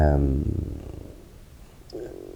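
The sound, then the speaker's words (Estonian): A cat purrs steadily in a low, rumbling drone in a corner of the room, with a short voiced sound at the start and another briefly near the end. “kes mõtleb, mis siin tausta peal niimoodi nu, taustal nurrub”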